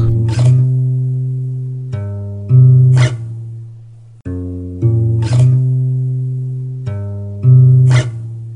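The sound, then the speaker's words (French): A guitar played simply and a bit hesitantly by someone who does not know how to play: a few chords strummed and left to ring, repeating the same short pattern twice, fairly loud, with no voices; recorded in a family house. “Et donc voilà, machinalement, j'ai pris euh, la guitare.”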